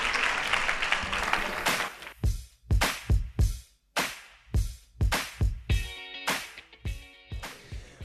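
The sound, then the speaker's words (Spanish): A burst of dense audience applause, bidding farewell to an interviewee, fills the opening seconds, then gives way to loud, evenly spaced rhythmic thumps with a tonal layer, like a percussive music sting. “Pues nada, te despedimos con un fuerte aplauso.”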